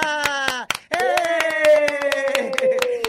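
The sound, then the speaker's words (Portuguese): Steady, rhythmic clapping at the end of an interview, sharp claps in an even beat over about three seconds, with a loud sustained voice, like cheering or a held sung note, running underneath. “Uma salva de palmas para a bicha madrinha!”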